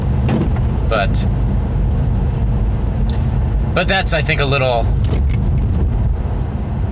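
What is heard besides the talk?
car windshield wipers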